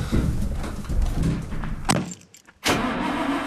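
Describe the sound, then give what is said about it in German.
A truck engine cranks over and over without catching, stops briefly, then starts grinding again. No one speaks. “Was ist los? Will er wieder nicht anspringen?”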